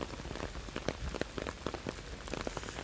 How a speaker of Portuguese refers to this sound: Olha, é o seguinte, a chuva não para de cair.